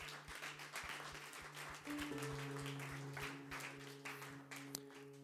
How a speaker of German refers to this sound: Ja, lass uns, lass Gott Applaus geben.